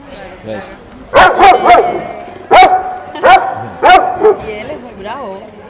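A dog barks repeatedly, loud sharp barks coming in quick clusters of two or three, ending with a softer, whiny yelp. The dog is Belcha, a six-year-old former street dog born in Bilbao.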